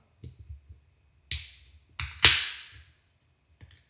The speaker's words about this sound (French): Un beau bruit de canette, donc. Un bruit de canetas.